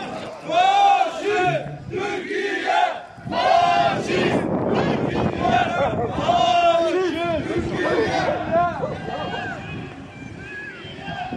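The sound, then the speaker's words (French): A lively outdoor crowd of Kurds on a Sunday evening at about 8 o'clock, with many overlapping voices chattering, calling and shouting at once in a continuous, fairly loud hubbub, with strong wind buffeting the microphone. “On est dimanche soir, c'est sympa, il y a de l'animation.”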